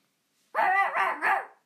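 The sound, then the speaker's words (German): A dog barks three times in quick succession, loud and somewhat gruff, each bark running into the next with a slight growling tone. No one speaks. “Mein Hund ist mir abgehauen, aber er ist wohl zu dir gegangen.”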